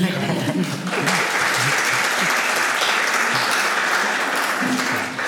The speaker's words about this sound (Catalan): no puc aplaudir perquè estic davant d'un micro que m'han dit que és hipersensible, però aplaudir.